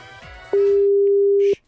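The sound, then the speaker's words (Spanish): A loud, steady telephone tone as a call is placed holds a single pitch for about one second, starting abruptly over faint background voices and music and cutting off cleanly, followed by a brief hiss. “Vamos a llamar.”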